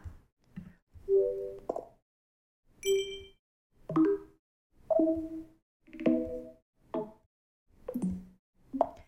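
A series of soft, short electronic chimes and dings, about ten in a row with brief pauses between them, each a different gentle tone, all quiet: faint computer system alert sounds being previewed one after another.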